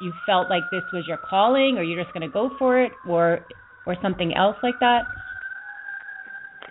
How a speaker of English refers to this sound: I apologize if you hear the siren in the background.